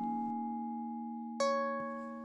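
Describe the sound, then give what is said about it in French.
Soft electronic chime tones from a website that sonifies live Wikipedia edits, each edit sounding a tone, ring out one after another, a low sustained note joined by a brighter bell-like strike and another soft hit, their tones overlapping and slowly fading. No voices. “T'entends Ce son, c'est l'activité en direct de l'encyclopédie en ligne. À chaque modification, ça sonne.”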